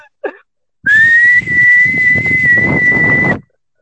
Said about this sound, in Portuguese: Aí eu fiquei meia hora soviando aqui pra ver se vocês ficavam com raiva e nada. Ah, você vê que a gente não tá ouvindo. Tá soviando pra quê?